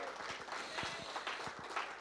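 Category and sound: crowd, audience applauding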